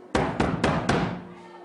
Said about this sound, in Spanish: La noche del 24 de septiembre de 1900 oí una llamada en la puerta de mi dormitorio.